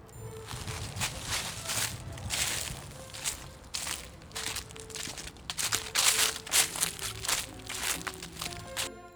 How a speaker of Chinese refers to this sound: 这次你有没有猜对呢？是在叶子上走路的声音哦。